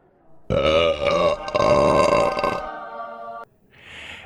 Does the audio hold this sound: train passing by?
no